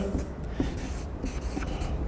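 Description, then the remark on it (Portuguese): A pen scratches steadily across paper in short strokes, a soft, continuous scribbling over a faint low background hum, with no one speaking. “Então, vamos lá, primeira coisa é a escrita, vou pegar outra caneta aqui já.”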